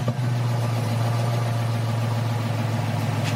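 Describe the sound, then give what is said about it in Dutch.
A tuned GM LS V8 engine idles loudly and steadily, its deep low rumble holding a constant pitch with a slightly lumpy, pulsing texture throughout. No one speaks. “En dat klinkt dan zo.”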